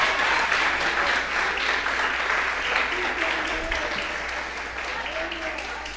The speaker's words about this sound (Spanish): Démosle un aplauso bien fuerte a ese Cristo poderoso. Aleluya.